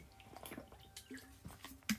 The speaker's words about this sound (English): give me a moment I'm trying to drink water real quick